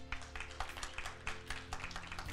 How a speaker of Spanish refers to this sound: ¿Cuántos creen que Dios se merece un aplauso en esta mañana?